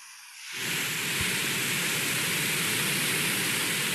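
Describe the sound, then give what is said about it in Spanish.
After a brief quiet moment, steady pink noise for relaxation swells in and holds as an even, continuous rushing hiss, fairly loud and unbroken, like falling water, with no voices. “Espera, ruido rosa para la relajación.”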